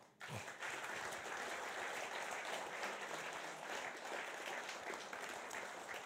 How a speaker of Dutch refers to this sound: Dames en heren, we gaan de twee hoofdrolspelers naar voren halen. En als het even kan, met uw warme applaus erbij.